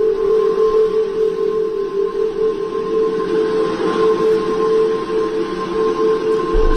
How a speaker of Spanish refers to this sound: sino que también mucho viento, ah, es permanente, eh, o casi permanente, y produce un zumbido que entiendo que lo tenemos. escuchen lo siguiente, escuchen esto.